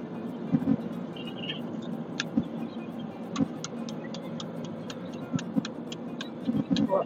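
Steady, low engine-and-road rumble fills a car interior throughout on a drive taken to get a young son to nap, with a run of regular, crisp ticking clicks joining in partway through and a few soft bumps along the way.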